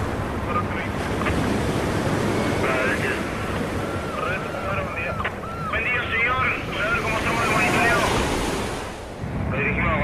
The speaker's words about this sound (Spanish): Rugido del mar registrado en el pueblo costero Camarones, provincia de Chubut, ubicado a 252 kilómetros de Treleu y a 262 de Comodoro Rivadavia.